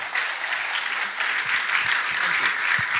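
A church audience applauds steadily to welcome a guest speaker, a dense wash of clapping hands that stays loud and even throughout, with faint voices murmuring underneath.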